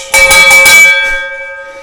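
A bell clangs loudly in a quick burst of four or five strikes, then its bright metallic tone lingers and slowly fades away. No one speaks.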